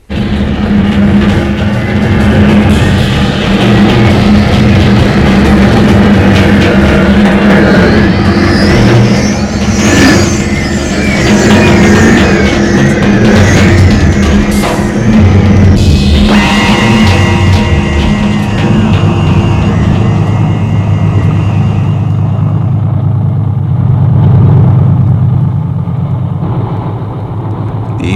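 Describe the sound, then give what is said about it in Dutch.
A vehicle engine drones steadily as it drives along a broad jungle track left by Russian trucks. Its low rumble rises and falls with gentle revs, loud and continuous throughout with no voices. “Toch is het veel gemakkelijker rijden, hè? Nu we dat brede spoor maar hoeven te volgen dat de Russische trucks in de jungle hebben achtergelaten.”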